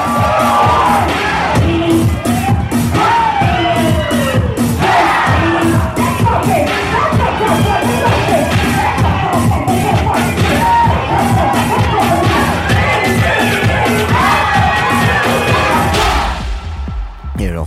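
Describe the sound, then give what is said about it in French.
A packed ballroom hall of people shouting and cheering loudly and continuously, with whoops and yells from the different houses rising over a dense crowd roar and a steady rhythmic music beat underneath, fading abruptly at the end. “des fois, toute la salle crie, c'est très, très particulier.”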